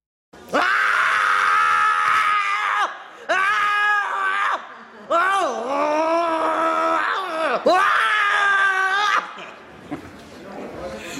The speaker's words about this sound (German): den Contest eben veranstaltet haben und im Abend, im, in der Aufführung des, des, des Viral Radio Abends dann der schönste Schrei oder der beste Schrei gekürt worden ist, der wirklich auch sehr gut war, muss man sagen.